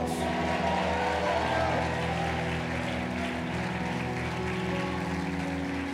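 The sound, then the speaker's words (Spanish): A large crowd claps and cheers continuously, a dense wash of applause and shouting that stays loud and steady throughout, with a low musical hum underneath. “Vamos, aplaude y grite, y el reino de Dios.”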